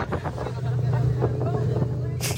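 A large motorboat carrying many people, travelling from Chetumal, Mexico, drones steadily while it heads straight into choppy waves, with wind buffeting the microphone and a sudden splashing rush at the very end.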